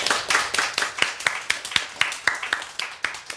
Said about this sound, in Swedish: Härligt jobbat där, Mr X. Precis, applåd.